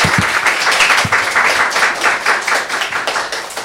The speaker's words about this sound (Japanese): はい、ありがとうございます。あの拍手をまたお願いします。